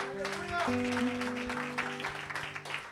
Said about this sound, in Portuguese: Glórias a Deus. Você pode aplaudir o Senhor.